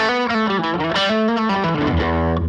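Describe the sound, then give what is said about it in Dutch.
An electric guitar played through the overdrive channel of an Amp One amplifier plays a quick run of gritty, sustained notes that slide downward, ending on a low held tone. The distortion is thick and compressed, with steady loudness and no voices. “Ook de eh, Overdrive Channel is ook wel best wel nice hoor.”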